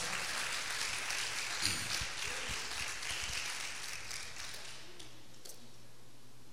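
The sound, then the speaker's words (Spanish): A crowd applauds itself, clapping together in a steady, dense patter that holds for several seconds and then gradually softens toward the end, with no voices over it. “Déjense un aplauso ustedes mismos.”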